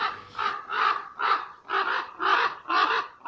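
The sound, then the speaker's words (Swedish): A flying raven croaks in a steady, rhythmic series of about six or seven harsh, hoarse calls, fairly loud, with short even pauses between them and no talking. “Så att eh, det här lätet då som vi pratade om när de flyger, det är att de säger korp, korp, mm.”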